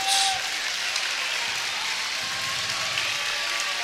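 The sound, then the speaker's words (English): The Harbor Beach basketball crowd reacts with steady, loud applause and cheering after a late transition basket, a dense hiss of clapping and voices that holds evenly for several seconds without letting up. “Harbor Beach crowd responds accordingly.”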